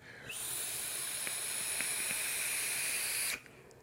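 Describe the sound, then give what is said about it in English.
A steady, airy hiss of an e-cigarette loaded with Lowrider e-liquid being drawn on, lasting about three seconds with a bright high-pitched whistle on top, then cutting off abruptly. No one speaks. “I found a couple bottles of Lowrider while I was doing some cleaning, and I thought, man, I have not vaped that juice in a while, so I need to vape me some Lowrider. But this this has been a banging little vape.”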